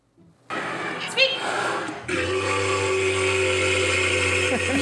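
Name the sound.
walrus vocalizations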